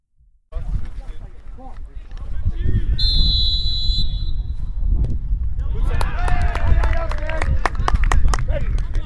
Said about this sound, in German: Die Fans drehen angemessen durch. Also man merkt, beste äh, Kreisliga-Platz-Stimmung.